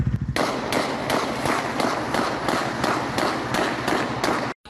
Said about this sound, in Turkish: 24 saat geçmeden o galeriye kurşun yağdı.